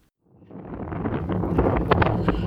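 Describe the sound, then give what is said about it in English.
Strong wind roars across an exposed mountainside in the rain, rising from quiet into a loud, steady buffeting with sharp gusts battering the microphone. “Oh my god, it's so windy up here.”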